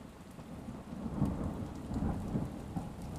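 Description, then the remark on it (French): Heavy, thick rain pours steadily in cold, dark weather while deep thunder rolls and rumbles underneath, swelling in waves without a sharp crack. No voices are present. “Il faisait froid, la pluie était épaisse et lourde. Des éclairs immenses déchiraient le ciel sombre et de terribles coups de tonnerre claquaient dans l'obscurité avec la puissance d'une artillerie en campagne.”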